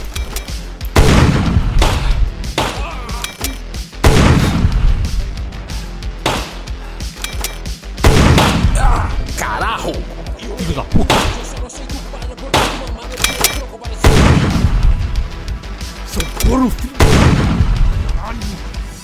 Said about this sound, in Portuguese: Continuamos ali trocando tiros e xingamentos, até que o desgraçado conseguiu a um tiro de raspão na minha orelha.